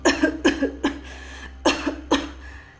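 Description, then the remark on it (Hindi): A sick man lying in a bed coughs hard and loudly in several quick bursts, about five harsh coughs in two clusters with a brief pause between, with no talking. “यह बोलते हुए वो जोर जोर से खांसने लगे”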